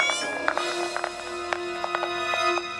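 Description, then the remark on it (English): Hard wooden clomping of clog dancing on cobblestones in the early evening, practice for a clog dancing class, about a dozen uneven knocks that sound like plodding hooves, over a steady humming musical tone. “they soon hear what sounds like the clomping hooves of a ghost horse”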